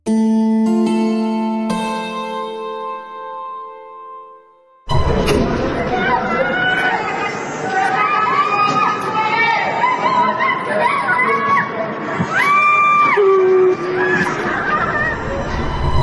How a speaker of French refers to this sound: Un immeuble en feu à Urumqi, en Chine, on entend les cris des résidents qui appellent au secours dans cette vidéo terrible postée sur TikTok.